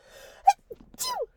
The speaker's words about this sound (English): I'm gonna sneeze.